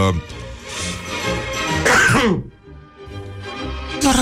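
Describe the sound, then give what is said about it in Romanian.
A sharp, somewhat muffled sneeze into the elbow bursts out once near the middle, loud, with a voice talking quietly before and after it. “am strănutat în cot.”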